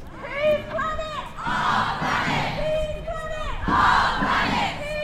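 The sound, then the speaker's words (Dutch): A large crowd of Australian protesters with banners chants loudly in the street, voices rising together in repeated rhythmic bursts with a dense, rowdy roar between the shouts. “En zij, ja, zij laten zich horen en zij komen protesteren op straat.”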